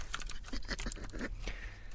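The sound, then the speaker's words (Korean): Rapid clicking of a loud, clicky tactile-switch mechanical keyboard, typed at home at night: a steady irregular patter of sharp, crisp keystrokes with no voices, continuing for the full two seconds at moderate loudness. “아, 아내는 내가 일을 할 때와 쇼핑을 할 때를 구분할 수 있구나, 이 사운드로.”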